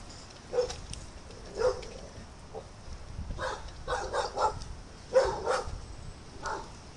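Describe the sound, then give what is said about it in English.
A dog barks repeatedly, sharp separate barks spaced irregularly, some coming in quick pairs, against a low background rumble with no talking. “My fucking killer's barking.”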